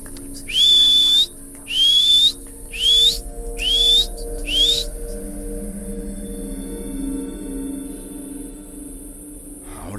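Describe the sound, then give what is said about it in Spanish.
A person whistles five short, rising notes in quick, evenly spaced succession, loud, over a low steady hum that continues alone after the whistling stops. “¿Lo que quieres es que te chifle? Pues te chiflo, pero sal y devuélveme a mi hermano.”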